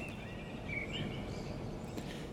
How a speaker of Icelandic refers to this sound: Þetta er upptakar sem var gerð klukkan 5.06 í nótt Þetta eru fugglarnir í Vesturbænum